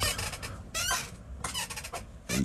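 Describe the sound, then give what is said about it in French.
A wooden rocking chair creaks in a steady back-and-forth rhythm as a person rocks in it, with several squeaky groans spaced about a second apart and no one speaking. “on entend ma chaise craquer. Je me berce”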